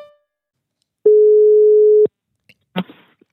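telephone ringing tone

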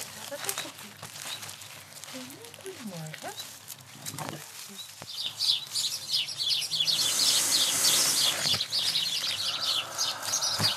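small birds singing

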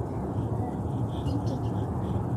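car interior driving noise

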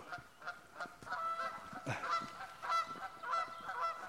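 canada geese honking

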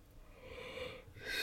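yawn

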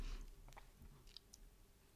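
sipping and swallowing water

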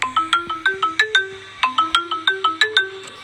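doorbell ringing

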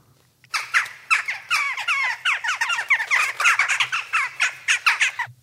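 jackdaw calling

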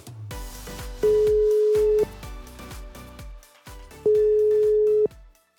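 telephone call ringing tone

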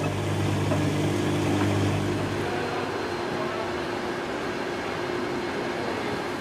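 washing machine running

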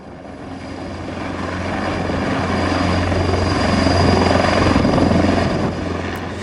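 helicopter flying

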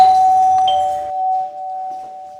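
doorbell ringing

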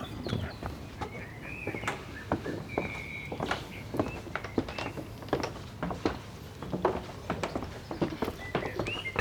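footsteps descending wooden stairs

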